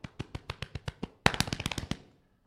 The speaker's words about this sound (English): You thought them shots was real, didn't you?